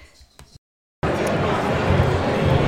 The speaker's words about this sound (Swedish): jag ber om ursäkt för ljudet, för vi är på en mässa, så det kommer att surra lite grann runt omkring oss.